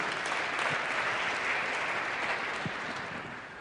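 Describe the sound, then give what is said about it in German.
A room full of people claps steadily, a dense wash of hand claps that holds strong for a few seconds before beginning to taper off. No one speaks over it. “Gebt ihr doch einen Applaus.”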